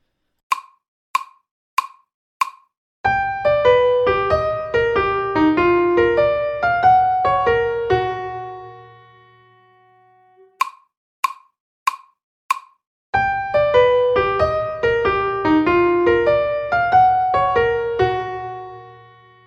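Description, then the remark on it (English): Four sharp clicks count in a bright melody of major triad arpeggios in different keys, rising and falling over a low sustained bass; after a pause, the count-in and arpeggio passage repeat. “this example I just gave you was a lot of major triads just played in different keys and ascending and descending orders”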